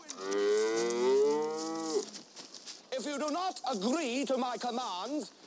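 A cow lets out one long, loud, drawn-out moo, then after a brief pause come several wavering, warbling vocal calls that rise and fall in pitch.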